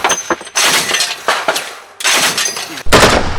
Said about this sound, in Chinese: 两军正面开火，枪声不绝于耳。